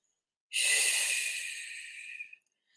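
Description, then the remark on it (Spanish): A single long, deep exhale through the mouth during a guided breathing exercise, breathy and airy, starting abruptly and fading gradually over about two seconds, with no talking. “Expande tu corazón, limpia tu corazón y exhala los grises.”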